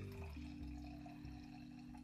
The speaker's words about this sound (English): That's not. He's he's pouring pouring wine. If y'all heard that little. That's not piss. That's wine in the glass.